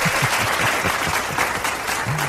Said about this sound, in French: Alors, je n'ai pas applaudi. je ne savais pas qu'il y a des applaudissements.